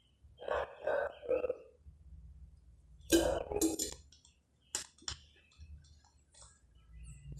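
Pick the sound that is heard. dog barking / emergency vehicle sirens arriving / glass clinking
glass clinking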